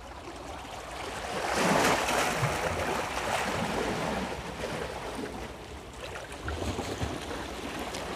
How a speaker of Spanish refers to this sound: El suave oleaje resuena.